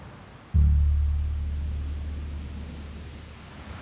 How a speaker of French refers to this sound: La mer est agitée. On navigue auprès. près. J'ai l'impression de prendre les rênes d'un cheval de course. Montagne russe dans la nuit noire.